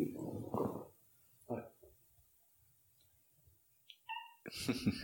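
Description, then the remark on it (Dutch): A cat gives a short, fairly loud meow amid scattered noises and brief stretches of people talking. “krijg een bezoeker. ze meespreken. Hoe heet de poes?”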